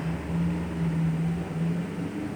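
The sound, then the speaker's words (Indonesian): A motorcycle passing on a roadside street drones steadily with a low, buzzing hum over broad traffic-like noise, holding a fairly constant level through the short stretch. No one speaks. “kita lagi di pinggir jalan jadi ada suara motor lewat motor mahal kayaknya”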